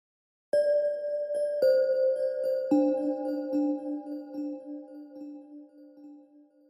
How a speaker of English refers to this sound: I'll start off by playing the bell sound on its own.